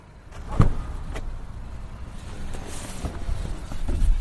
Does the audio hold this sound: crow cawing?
no